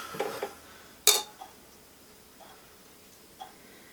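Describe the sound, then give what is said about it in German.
Glasses clink together in a toast: one sharp, bright chime rings out after a soft rustle, followed by a few faint taps and knocks before quiet returns. “Lass mal anstoßen.”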